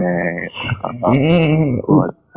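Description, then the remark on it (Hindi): A person uses their voice to imitate the horse-neigh sound effect used for the character Jethalal: a loud, wavering whinny that rises and falls in pitch for about two seconds, broken by short breaks before cutting off. “घोड़ा का आवाज रहता है”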